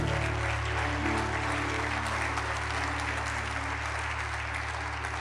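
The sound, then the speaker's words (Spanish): An audience claps loudly and steadily for several seconds as applause for the Lord, a dense, continuous wash of applause with a low sustained hum underneath and no one speaking. “era un aplauso fuerte al Señor.”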